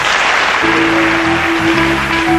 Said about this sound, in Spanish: Así que les damos las gracias a los seis y tranquilidad ante todo, y este fuerte aplauso del público.